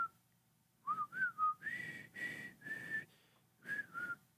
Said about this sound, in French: je sais pas, je, la siffle, mais je pense que je la siffle à cause de ah! Breakfast Club